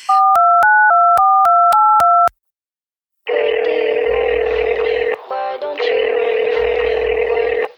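A quick run of about seven keypad beeps as a phone call is placed, a short pause, then a loud, steady telephone tone that drones on with a brief interruption in the middle, with no talking.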